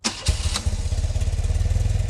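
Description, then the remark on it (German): A motorcycle engine cranks and fires up with a sharp burst, then settles into a steady, pulsing low rumble as it idles. No one speaks. “Das Motorrad startet.”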